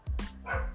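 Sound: dog barking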